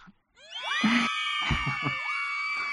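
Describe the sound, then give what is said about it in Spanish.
A sound effect of a crowd of female admirers shrieking and screaming at once, a dense wall of high, wavering cries that swells in after a brief silence and stays loud and sustained throughout. “Vale, ya, espera que se callen un poco las admiradoras de Adrián.”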